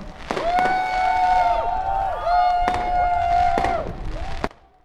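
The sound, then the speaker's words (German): Fireworks, set off from a building rooftop at Maybachufer during a solidarity action, crack and pop in several sharp bursts, with a long, wavering whistle running between the blasts, all over a steady roar of crowd noise. “Ja, die Feuerwerke, die ihr im Hintergrund hören könnt, das war eine Soli-Aktion am Maybachufer auf einem Hausdach, hatten sich Leute versammelt mit äh, leuchtenden roten Fackeln und eben einem Feuerwerk.”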